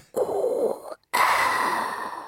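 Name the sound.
imitated heavy respirator breathing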